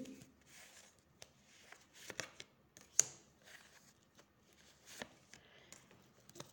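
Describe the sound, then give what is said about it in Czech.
Quiet rustling of tarot cards being shuffled, broken by several sharp papery snaps and slaps as cards are laid down for a health reading, fairly faint, with no talking. “Co se týče zdraví, já ještě hodím další karty.”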